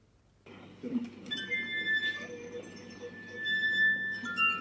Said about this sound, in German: Die Glasharfe besteht aus in mehreren Reihen angeordneten Trinkgläsern und diese werden zum Klingen gebracht, indem man am Rand mit dem nassen Finger kreisende Bewegungen ausführt.